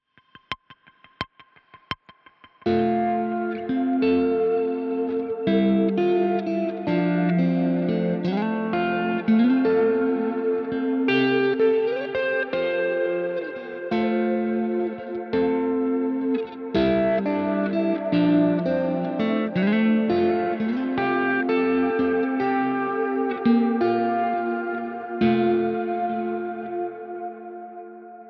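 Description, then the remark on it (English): Electric guitar through an amp profiler, its delay wet output being recorded: sustained chords and melodic lines drenched in delay, with repeating echoes and lush reverb tails smearing notes together; a few sharp clicks precede it, then steady, moderately loud playing for about 25 seconds. “Recording the delay wet output from the profiler.”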